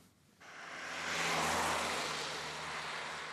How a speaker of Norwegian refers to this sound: Det er midt på dagen. På veien er det mye trafikk, men få busser.